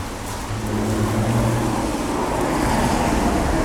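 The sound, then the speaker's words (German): Steady roar of car traffic with a broad hiss, like cars passing over a street wet from rain, on the Lister Meile; a low engine hum drifts in and out beneath the continuous wash, no voices. “Durch den Regen ist es jetzt auch so laut hier.”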